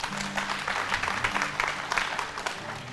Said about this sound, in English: Y'all give John a hand clap this morning.